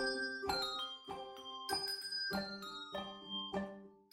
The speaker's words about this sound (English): They're doing bell practice. They do it every Thursday night. How thrilling.